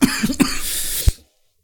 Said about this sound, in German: ja, du musst, du musst, du musst vorher muten und dann husten, nicht erst husten, dann. Äh, ich, das ist, war nur der, der, der kleine Huster, der, so. der große kam noch.